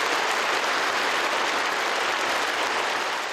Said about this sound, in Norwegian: Hu Jintao, dagens partisjef og dermed president i Kina, holder her sin lange tale til partikongressen i 2007. Ved talens slutt klapper delegatene entusiastisk, kanskje fordi talen endelig er slutt.